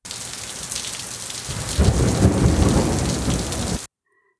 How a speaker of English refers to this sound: On day four, lightning struck from the heavens. Angry lightning, Purple black clouds rolled across the sky. Thunder that shook the earth. Then came rivers of rain.